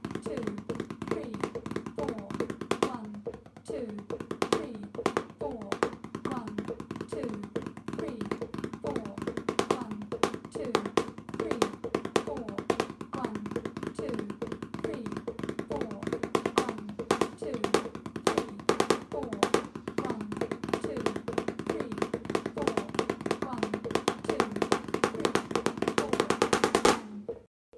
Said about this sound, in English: Those Herta threes, man. Mm. Very, very mm. snappy Herta threes for sure. Wow. I also love hearing really intentional dynamics on a practice pad.